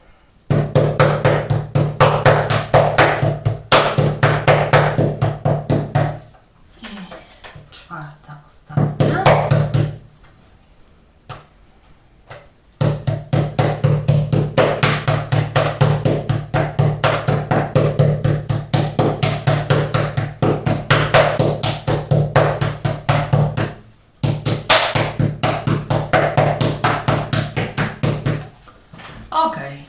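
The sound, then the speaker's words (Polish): Four portions of meat for roulades being pounded flat with a mallet: rapid, steady thumping in long, loud bursts, broken by a few short pauses, over a constant low hum. “W tym momencie wszystkie cztery porcje są już rozbite.”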